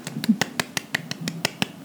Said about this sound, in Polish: No i brawo. cichsze klaskanie do mikrofonu, ponieważ nie wiem jeszcze, jak jest bardzo czułe tak, pierwszy raz nagrywamy na tych mikrofonach i, jeszcze nic nie wiemy o nich.